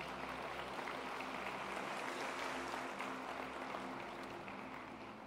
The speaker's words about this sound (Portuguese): Quero convidar a igreja a dar uma salva de palmas para receber a todos eles.